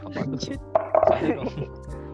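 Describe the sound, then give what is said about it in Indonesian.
A bottle tips over with a sharp knock, then a short burst of rattling clatter, heard over low murmuring voices. “oh iya ini botol aku jatuh ah.”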